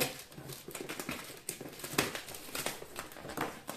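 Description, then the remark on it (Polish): Busy crinkling of plastic packaging as a package is opened with scissors, with irregular bursts of rustling and snipping-like clicks for a few seconds, no voices. “Może uda mi się raz w życiu otworzyć coś na filmie, a nie poza filmem. Zaraz zobaczymy, czy nożyczki mi w tym pomogą, czy nie.”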